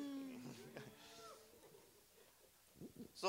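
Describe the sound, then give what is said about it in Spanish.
People imitate cows stopped on railway tracks as a train comes, a few drawn-out, overlapping low moos in the first half that fade away, followed by a quiet pause and a brief burst of voices at the end. “Están como, tan como, cuando están las vacas que van a cruzar las vías del tren y que viene el tren y se paran las vacas y está el tren a todo lo que dan mm, y las vacas.”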